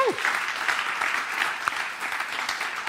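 Steady applause from a church service audience, a dense wash of many hands clapping at a consistent level for a few seconds, with a faint voice briefly audible at the start.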